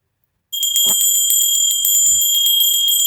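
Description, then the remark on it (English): A pony bell from Namche Bazaar on the Everest Base Camp circuit rings steadily after a brief pause. Its bright, high metallic tone pulses with a fast rattle of repeated strikes for a few seconds, with no voices. “Okay, this this would be a bell from a pony.”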